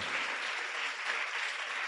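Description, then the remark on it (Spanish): An audience breaks into steady applause for the Lord after a prayer, a dense, continuous wash of many hands clapping at an even loudness with no voices standing out. “Si usted pudo hacer una oración, si usted revisó su corazón, si usted confesó su dolor, si usted pudo hoy ir delante del Dios grande y poderoso, lo invito a que le dé un aplauso al Señor con todo el corazón.”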